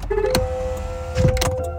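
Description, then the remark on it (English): A car's power window motor whirs steadily for under two seconds as the window rolls up, a sustained mechanical hum, with a few clicks and thumps inside the vehicle and no talking. “Roll my window.”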